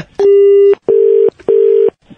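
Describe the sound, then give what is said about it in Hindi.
A phone call-disconnect tone after a call dropped because of a network problem: three loud, steady mid-pitched beeps, the first a little longer, the next two evenly spaced with short silent gaps between them. No voices. “hello network का बड़ा problem है फोन कट गया नेटवर्क का प्रॉब्लम है सॉरी सॉरी”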